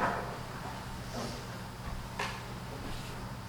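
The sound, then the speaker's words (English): A simple chair is shifted into place, giving a couple of brief wooden knocks and scrapes over a low steady room hum, not loud. “take this simple chair.”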